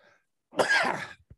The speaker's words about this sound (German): Gesundheit. Ja, danke.